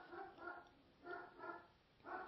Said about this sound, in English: Sorry, dog is barking in the background because real life is happening.